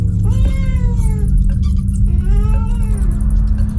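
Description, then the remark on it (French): A cat meows twice in an apartment in Paris's 14th arrondissement in the evening, each cry long and drawn out with a rising then falling pitch, over a constant low hum in the background. “Donc, chauve-souris ou chat, c'est notre programme du soir.”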